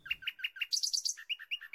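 A doorbell of a 15th-floor flat in a grey residential tower is pressed and plays an electronic artificial birdsong tune: evenly spaced chirps, then a quick run of higher twitters, then alternating lower and higher notes, clear with no voices.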